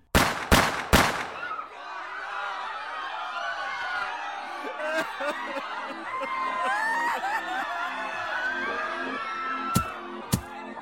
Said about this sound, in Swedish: Det krävdes tre skott för att skapa osäkerhet i Dallas, USA och den övriga världen. Tre skott för att mörda president John F Kennedy. Bara tre skott för att skapa total panik.